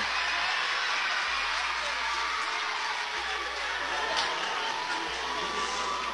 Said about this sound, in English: Boos raining in from the crowd.